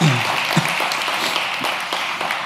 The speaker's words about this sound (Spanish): Digo, conmigo todos somos iglesia. Y dale un aplauso bien fuerte a Dios.